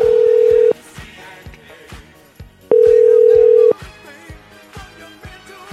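A telephone line tone sounds in two steady buzzing bursts about two seconds apart while placing a call, clear and loud over rhythmic background music, with no one talking.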